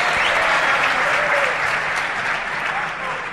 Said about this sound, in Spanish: qué bien que te reciban con estos aplausos, ¿no?